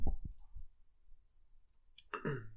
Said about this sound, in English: Oh, yeah, it's that fucking chair, man. You can hear that fucking chair, man.